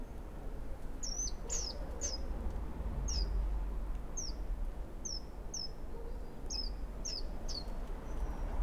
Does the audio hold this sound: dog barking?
no